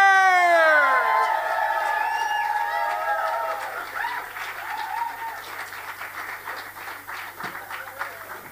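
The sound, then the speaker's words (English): An audience in Dublin erupts in loud whoops and cheering as a poet is introduced on stage, quickly giving way to sustained, dense applause, many hands clapping steadily as the roar of voices fades underneath. “Ladies and gentlemen, all the way from the north of this island, a fine poet, if ever I heard one, I want you to give him the lingo roar. Let him know you care. Would you give it up for the inimitable Colin Hassard?”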